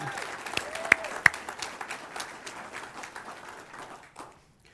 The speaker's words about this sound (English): Now, I know some of you guys are golf clapping out there, and it's because it's not your person. If it were your son or your nephew, you would be over the moon excited.